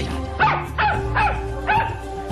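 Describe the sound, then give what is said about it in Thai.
A puppy barks excitedly in four quick, high-pitched yips spaced about half a second apart as it runs joyfully into a temple compound, clear over a low background hum, with no talking. “พบเห็นลูกสุนัขตัวนี้ วิ่งตะบึงเข้ามาในพระอารามอย่างดีอกดีใจ”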